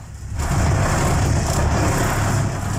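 A constant, loud ship engine drone, heavy low rumble with a steady mechanical hum, muffled as if heard through a wall from a cabin adjoining the engine room, recorded on a phone. No voices.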